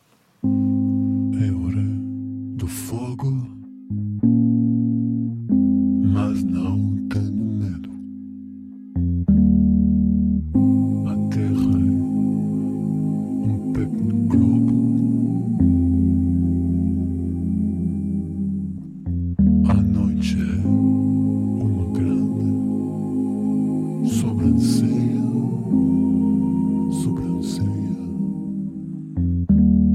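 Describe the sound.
A reworked fado piece written for a film's end credits plays throughout, with loud sustained low harmonic tones under a voice-like melodic line. It runs continuously, with a few brief pauses between phrases.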